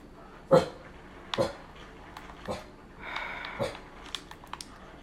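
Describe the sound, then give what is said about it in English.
A male dog barks in short, sharp bursts, roughly four of them spread unevenly, with softer whining and whimpering in between. “The dog's in his getting going.”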